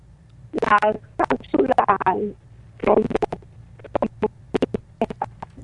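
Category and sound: fault, garbled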